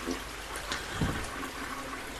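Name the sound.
toilet being flushed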